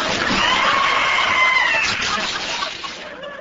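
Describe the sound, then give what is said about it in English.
A loud, shrill high-pitched scream, sustained with wavering, rising and falling pitch for about two seconds before trailing off into a ragged, fading tail, from a man disguised in a woman's housecoat as it is ripped at a store's frozen foods freezer. “That high-pitched scream didn't fool me, for underneath the dress was Baby Giles Grosbeck, notorious food heister.”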